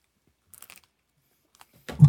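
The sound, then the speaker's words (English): Chewing breakfast food with a few soft, crunchy bites in quick succession, a brief pause, then a louder, heavier crunch at the end. No one speaks. “I'm gesticulating as I chew.”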